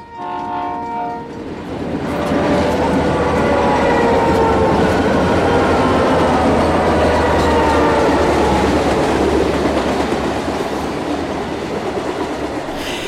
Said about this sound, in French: ils sont dans le train, et dans, le TGV et il traverse avec le train, il traverse un tunnel creusé dans la montagne.